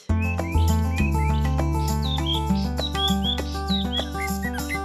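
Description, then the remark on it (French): A person whistles bright, chirping birdsong imitations in quick repeated calls, clear over a sustained accompaniment of piano and violin: bird singers performing a version of Stravinsky's The Firebird, broadcast on RFI. “L'oiseau de feu de Stravinsky, revisité par les chanteurs d'oiseaux”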